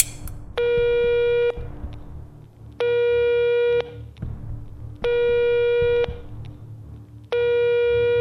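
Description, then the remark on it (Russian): Telephone ringback tones heard in a handset after pressing the call button: four steady, buzzy mid-pitched beeps, each about a second long, repeating at even intervals with short pauses over a low background hum, with no one answering. No one speaks. “Гудки длились бесконечно.”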